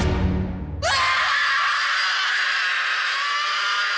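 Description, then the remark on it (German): A girl in a room lets out a sudden, deafening shriek that fills the room, piercing and sustained without a break, cutting in abruptly after a brief low rumble and holding loud to the end. “Das ohrenbetäubende Kreischen kam ohne Warnung und erfüllte den Raum.”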